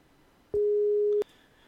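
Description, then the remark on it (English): A single steady electronic phone tone sounds for about two thirds of a second, clean and fairly loud, starting and stopping with soft clicks, a call signal while calling someone back. “We're going to give him a call back here, real quick.”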